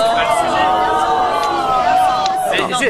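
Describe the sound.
A loud studio audience at a televised debate in France shouts and cheers together, a dense, sustained wall of overlapping voices that stays intense for the whole few seconds.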